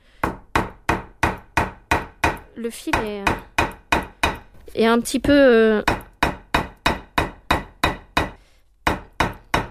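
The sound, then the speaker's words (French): Steady hammer taps on leather, about two or three blows per second in an even rhythm, pausing briefly while someone speaks a few words before the tapping resumes; hand-sewn stitches are being hammered down into the leather. “Donc voilà, du coup maintenant que c'est martelé, bah, je vais pouvoir continuer mes autres étapes de travail”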